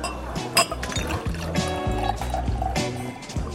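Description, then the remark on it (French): Still, unfiltered white wine from a second bottle poured into a glass, a steady gurgling stream lasting a few seconds, its pitch rising as the glass fills, with a faint clink of glass. “on va entamer notre deuxième bouteille. Donc on passe au blanc avec la petite robe.”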